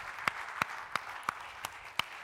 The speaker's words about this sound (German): Geben wir Ihnen auch einen kräftigen Applaus unseren Kinderdienstmitarbeitern